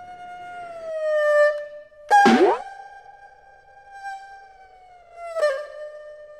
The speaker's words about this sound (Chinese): 就想起一支曲子，就是我们阿炳的《江河水》，我们都来听一段。